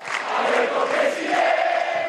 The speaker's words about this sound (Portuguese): A vitória do peronista Alberto Fernandes foi confirmada antes das 10 da noite e uma multidão ganhou as ruas de Buenos Aires.